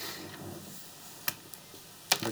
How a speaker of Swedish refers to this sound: Han tystnar och eh, slår en tärning i ramen.